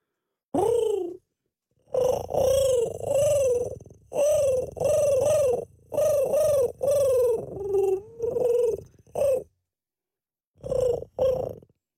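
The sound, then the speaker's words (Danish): A person imitates a dove cooing, making a steady series of throaty rolling coos in short bursts, then pausing before two final coos. “Øh, en due siger jo sådan her.”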